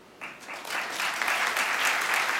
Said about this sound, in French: Euh, applaudissez les podcasteurs et podcasteuses qui sont nommés ce soir.